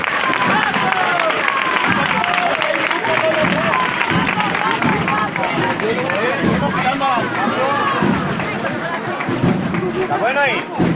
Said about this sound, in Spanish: y vamos a esperar a ver si interpretan su primera marcha mientras el paso de Cristo gira para, tomar posesión de, la parroquia de la Magdalena. Y de nuevo no podían faltar los vivas hacia el Cristo.